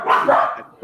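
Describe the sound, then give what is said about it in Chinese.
A dog barks in short bursts, a couple of sharp mid-pitched yaps with a slightly whiny edge, loud and clear with no talking over them. “还有一个一个狗叫”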